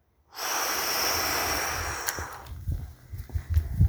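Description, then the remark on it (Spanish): A long, steady exhale of breath during a breathing exercise, a breathy hiss lasting about two seconds, then trailing off into quiet with a few faint, low thumps and small rustles. “Respira por la nariz. Exhala.”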